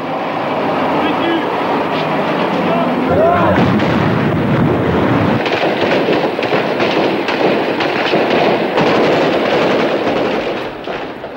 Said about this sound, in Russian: В это время раздался взрыв, и бойцы спецназа, оборонявшие Останкина, начали поливать толпу огнем из автоматов и пулеметов.